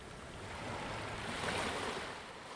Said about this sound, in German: Du hörst dessen sanfte Brandung.